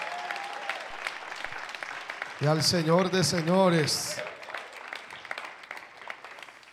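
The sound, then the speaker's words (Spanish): A church audience applauds steadily with dense, crackling clapping throughout, while a man's voice calls out loudly over the applause for a moment in the middle. “Vamos iglesia, ese aplauso más fuerte a Rey de Reyes”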